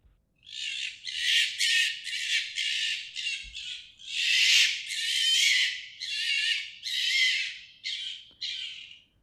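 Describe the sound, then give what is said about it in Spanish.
A female fox in heat during mating season gives a rapid series of harsh, hoarse screams, about a dozen raspy shrieks in close succession, loud, with no other sounds around them. “Uno durante el celo, eh, primero vamos a oír a una zorra ah, en celo y después otras voces diversas y gritos.”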